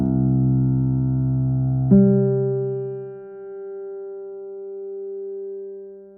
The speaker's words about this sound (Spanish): Está afuera, representa al futuro, y de algún modo la relación suena así, extrovertida, abierta, como un aumento del nivel de energía. Si vamos de Do a Sol, es decir, del sonido 1 al 3 en la serie armónica